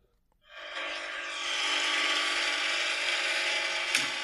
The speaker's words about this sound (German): Jetzt war so ein komisches Geräusch. Hörst du's? Ja. Wie und was genau passiert da? Wie, was genau passiert da? Das ist einfach der Waschgang. Ja, es funktioniert alles und es macht aber einfach das Geräusch, oder wie?